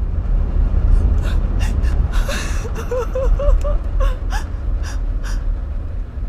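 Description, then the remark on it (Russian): Heartrending sobbing filling a Buick car on the streets of an eastern city in mid-October: sharp, breathy gasps break into a run of quavering, high-pitched wailing cries in the middle, then trail into shaky breaths, all over a steady low rumble. “И однажды, в середине октября, на улицах восточного города Бьюик наполнился душераздирающими рыданиями”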